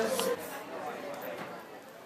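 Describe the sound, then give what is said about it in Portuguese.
Steady hiss of rain falling outdoors at Caldas across the whole moment, with hurried footsteps of people running to a parking lot and faint murmuring voices mixed underneath. “Chove nas caldas, por isso corremos para o estacionamento.”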